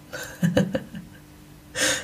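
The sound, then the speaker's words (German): A small, delicate cat snores softly in the background, with a few faint snuffling breaths and then a louder, rasping inhale near the end, all without any talking. “Während ich hier mit dir spreche, fällt mir ein, vielleicht sollte ich das noch kurz erwähnen, falls du Schnarchen hören kannst im Hintergrund. Das ist meine kleine Katze.”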